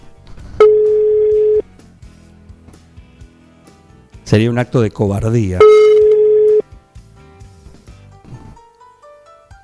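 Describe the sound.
Two long steady ringback tones of an outgoing phone call made live on air sound, separated by a burst of loud talking; the tones are clear and unbroken, each lasting about a second.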